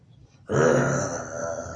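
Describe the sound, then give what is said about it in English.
A person lets out a loud, drawn-out roaring morning yawn that starts abruptly and holds steady for over a second, a growly voiced imitation of a big cat's roar. “Every time you yawn in the morning, you roar a little bit, you know.”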